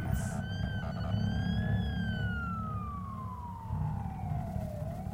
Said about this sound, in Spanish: Ya las sirenas, gritos y ruidos se oían cada vez más distantes.